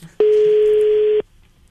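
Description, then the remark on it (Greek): A single steady telephone ringback tone sounds for about one second as a call is placed from the Breakfast Lab morning radio show on Zoo Radio. It is clear and fairly loud, with quiet background before and after and no talking. “Ναι, είναι ε, το τηλέφωνο”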